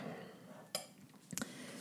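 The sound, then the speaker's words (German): A fork scrapes a tablespoon of peanut butter off a large tablespoon, producing two brief, bright metallic clinks about half a second apart, the second slightly rougher, over a quiet background with no talking. “Den, der Gabel streiche ich das, die Erdnussbutter jetzt vom Löffel runter.”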